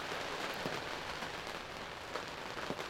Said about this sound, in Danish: Det regner, som I nok kan høre, og oliefyret er løbet tør for dieselolie.